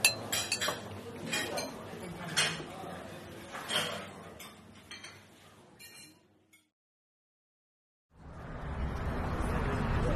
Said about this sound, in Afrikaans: Nou, kom ons klink daarop met 'n stewige dosis koffie.